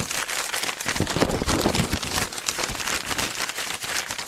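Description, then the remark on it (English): Steady crinkling and tearing of paper as an envelope is ripped open and handled in a studio, a dense crackly rustle lasting several seconds with no one talking. “That sounds like a opened uh, envelope.”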